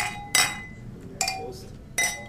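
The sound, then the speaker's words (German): Glasses clink together three times in a toast, each bright chime ringing briefly before fading, spaced evenly about a second apart, with no talking over them. “So, Prost die Dame, Prost die Herren.”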